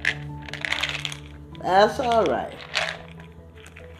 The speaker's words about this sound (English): Uh, again, excuse the background noise. I'm doling out the eight pills that I have to take daily